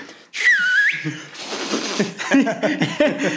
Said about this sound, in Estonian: kui ma vilistada oskan, vilistaks ma vist veits oskan, ma proovin